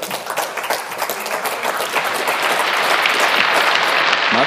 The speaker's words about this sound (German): Herzlich willkommen. Auch Sie bekommen einen Applaus